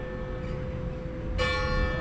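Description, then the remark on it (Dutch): Church bells ring with a steady, fairly pure hum, then a fresh strike brings a brighter, fuller chime with shimmering overtones. No voices are heard. “De klokken die bijeren. Ja, ook met een soort eh, aandoenlijke soberheid. Weinig bijklank, redelijk zuiver”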